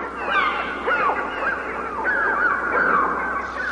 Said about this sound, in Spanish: la verdad es que pájaros que va te ponen los pelos de punta.